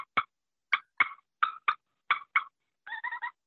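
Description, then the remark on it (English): About seven soft turkey clucks played on a pot call (a purr pot), spaced in loose pairs, followed by a brief rolling purr. Fairly quiet, with no talking over them. “if you just sit there with one of these and cluck and just purr softly”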